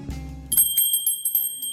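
A small, bright bell jingles several times in quick succession after a brief low tone, announcing that a visitor has arrived at a school, its high ringing partials lingering between strikes, clear with no voices.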